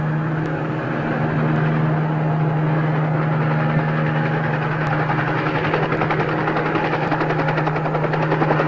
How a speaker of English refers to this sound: Oh, and that inbound chopper we've been checking. It has no armament on board.